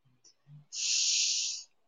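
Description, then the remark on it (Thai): A single long, deep sniff drawn in through the nose as a man demonstrates breathing in, a steady airy hiss lasting about a second, fairly loud, preceded by a couple of faint low murmurs. “ผมกำลังสูดหายใจเข้าสูดหายใจเข้า”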